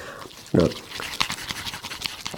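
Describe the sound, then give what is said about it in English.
Chopsticks briskly whip sticky natto with soy sauce until it turns foamy and bubbly, making rapid, wet scraping and clicking strokes in a steady rhythm after a brief low thump. “I'm gonna whip up this natto. Oh yeah, it's getting bubbly.”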